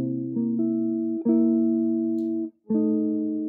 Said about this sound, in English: So C7, F7, B flat 7, pretty similar sound. So wh- why why is that? So we can think about these these two tones of the C